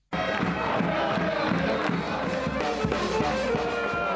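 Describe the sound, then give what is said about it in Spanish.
A basketball arena crowd at the Copa del Rey, where Valencia Basket beat Gran Canaria 81-89 after overtime, cheers loudly and steadily, a dense roar of many voices with shouts rising over it, sustained throughout without a break. “Y este es el ambiente en el que Valencia Basket venció ayer a Gran Canaria 81-89, partido que se marchó a la prórroga tras llegar empatados a 77 en el tiempo reglamentario.”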